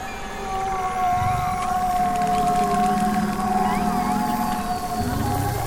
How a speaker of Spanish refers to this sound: Esta es una composición hecha con grabaciones de ballenas, delfines y lobos marinos que habitan los mares, arrecifes y costas de la península de Baja California.